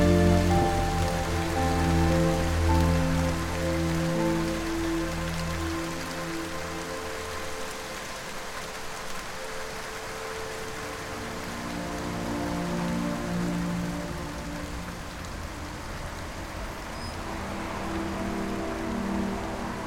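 Steady rain falls continuously, a dense hiss of drops on a surface, with soft musical tones drifting underneath throughout. The downpour stays even, with no voices.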